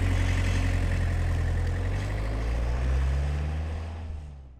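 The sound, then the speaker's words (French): A car's steady, low engine rumble with a deep droning hum as the handbrake is released and the car is driven slowly home, its pitch rising slightly as it rolls along, then easing off and fading toward the end. No voices. “J'ai finalement retiré le frein à main et j'ai doucement roulé jusqu'à chez moi.”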